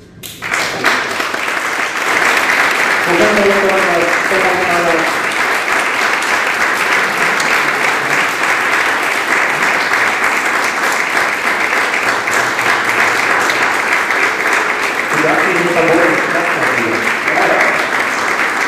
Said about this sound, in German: Sie haben ja gerade sich schön bewegt und geklatscht.